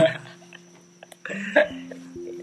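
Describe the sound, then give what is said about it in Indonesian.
A faint, steady high-pitched cricket trill runs continuously in the background outdoors, recorded beneath the water tank of a rented house by the back door beside a clothesline after cloudy weather, while human vocal noises, short laugh-like or hiccup-like bursts, come and go over it. “nggak nggak nggak clean clean banget suaranya kan ya karena memang dasarnya kita cuma anak tongkrongan yang yang yang makan aja pun masih ngitung gitu apalagi beli alat ini syukur syukur suara jangkrik kedengeran nih”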